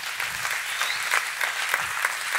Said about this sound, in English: Someone give the Lord a clap and a shout. Hey, come on.